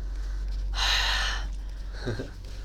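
A single loud, breathy exhale blows close into the microphone, a rushing hiss lasting under a second, followed shortly by a brief, quiet vocal murmur over a steady low hum.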